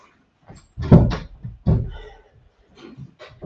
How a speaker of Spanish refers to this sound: Bien, aguárdenme que tengo que cerrar una puerta.